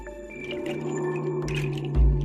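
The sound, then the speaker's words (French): Wind in the Sahara desert howls steadily, a continuous whistling moan over a low rumbling roar, with a stronger gust swelling near the end. No voices. “Écoute le vent, c'est le Sahara qui pleure.”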